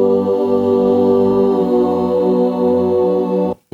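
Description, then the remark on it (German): A choir holds a sustained chord, thick and boomy with a muddy, congested low-midrange. It stays loud and steady, then cuts out abruptly near the end before briefly returning. “Das ist, äh, das klingt so ein bisschen matschig.”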